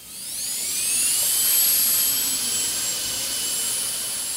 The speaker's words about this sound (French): Oui, en fait, une fois que toute la surface est faite en verre pâle, par exemple, je vais prendre une, une, une fraise diamant en forme de poire.